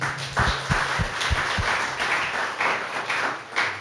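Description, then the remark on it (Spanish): A church audience applauds the Lord after a prayer, a dense, steady wash of many hands clapping at moderate volume, with a few sharper low thumps near the start and no one speaking. “Podemos aplaudirle al Señor.”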